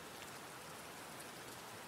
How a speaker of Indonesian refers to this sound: Hujannya masih deras nih.